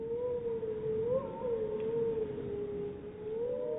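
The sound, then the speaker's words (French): A sustained, wavering howl from a wolf pack, recorded to estimate the number of wolves in the pack and whether it has bred, holds a steady mid pitch for the whole stretch, rising and dipping slightly with a faint higher overtone, over a low rumbling background and no talking. “Le but, en fait, d'enregistrer les hurlements, euh, c'est d'essayer, en fait, d'estimer premièrement le nombre de loups qu'il y a dans la, pré- dans la meute, et aussi de voir s'il y a eu reproduction ou pas au sein de la meute.”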